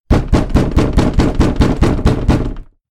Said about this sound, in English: you hear a loud banging on the back door that's like the alleyway door into your shop and apartment.